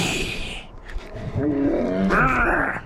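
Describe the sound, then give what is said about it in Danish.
A lion at a zoo gives a deep, drawn-out roar lasting over a second, rising and swelling toward the end, loud against a light background hiss, with no one talking. “Løverne er ude.”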